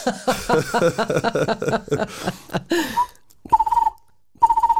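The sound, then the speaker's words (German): A person talks briefly, then imitates a bird call twice with short, fast-pulsing, fluttery trills at a steady mid-high pitch, each under a second, separated by a brief silence. “Ich kann aber auch ein paar machen.”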